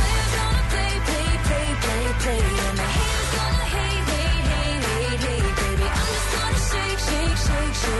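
A polished pop song, a Billboard number-one hit, plays loud and steady, with a driving beat, full bright instrumentation and a sung melody on top, continuing without any talking over it.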